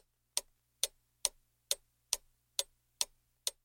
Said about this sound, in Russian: Молчание длилось долго, прерываемое лишь мерным тиканьем часов, которые, казалось, шли медленнее обычного, милостиво давая супругам время прийти в себя.